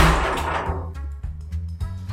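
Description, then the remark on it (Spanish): A door slams shut with one heavy, booming bang that rings out and fades, followed by a couple of softer knocks and rattles: a door at home being shut by the wind. No one speaks. “ese ruido? cerrar una puerta con el viento en mi casa”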